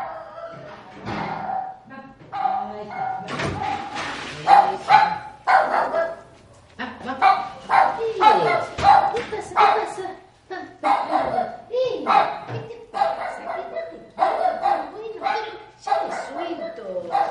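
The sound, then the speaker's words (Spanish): A dog barks over and over in quick, excited bursts as a woman enters with it, loud, with brief pauses between volleys and a few higher yips mixed in. “Entra la señora con el perro.”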